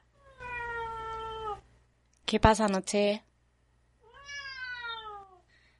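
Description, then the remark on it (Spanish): A cat meows twice, each a long, drawn-out cry sliding downward in pitch, fairly loud, with a person briefly speaking between the two meows. “Noche quería aparecer en el podcast porque es sobre él”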